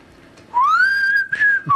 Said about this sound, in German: pfeifst du nochmal?